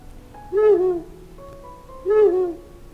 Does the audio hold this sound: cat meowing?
no